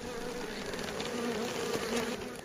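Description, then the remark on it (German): A steady, dense drone of many honeybees buzzing around a hive in the new Bruder Adam bee garden on the Michaelsberg in Siegburg, continuous, with overlapping wingbeat hums rising and falling slightly and no voices. “So klingen die Bienen des neuen Bruder Adam Gartens auf dem Siegburger Michaelsberg.”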